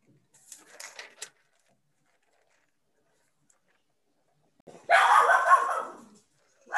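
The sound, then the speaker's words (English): A dog lets out a strange, laugh-like vocal noise: a faint, brief sputter first, then after a pause a louder, drawn-out huffing burst, with no talking. “I thought that was someone laughing. No, it was my dog.”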